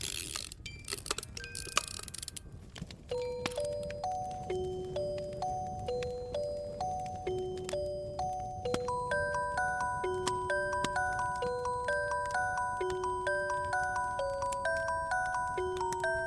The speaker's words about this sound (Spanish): Entonces, la cajita interpretaba mecánicamente una melodía con tonos metálicos.